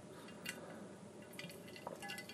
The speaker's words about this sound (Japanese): 今もねこのカランコロンカランコロンっていうのはね、えー、緑茶杯を私が飲んでいる音なんですけれども